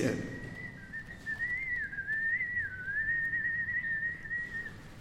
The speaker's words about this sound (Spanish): Sí, y, aquí se oye como si fuera un fantasma de, la casa que dicen que tiene fantasmas, además. Qué bonito, ¿eh? Qué bonito chiflidito desde allá.